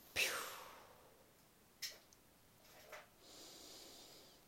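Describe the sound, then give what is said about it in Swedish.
A sharp nasal intake of breath opens, followed by a couple of brief airy puffs and then a long, soft, slow inhale trailing off at the end, during a guided breathing exercise; no one speaks. “andas in genom våra fötter, rötter.”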